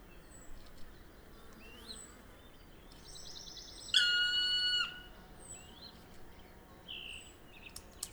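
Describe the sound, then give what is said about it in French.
A bumblebee's loud, droning buzz swells for about a second in a late-morning nature chorus, standing out against a quieter backdrop of scattered, faint bird chirps. “Écoutez Nature, Pic Noir, Bourdon et Bruyant Fou. Les trois espèces se succèdent dans ce chorus euh, bien avancé du matin, matière sonore en perpétuel mouvement, se terminant par le chant du Bruyant Fou.”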